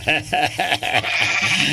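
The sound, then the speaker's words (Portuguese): A sheep or young goat bleats loudly in a series of quick, quavering calls, followed by a longer drawn-out bleat, with no talking over it. “ah, é ovelha cabrita é tudo.”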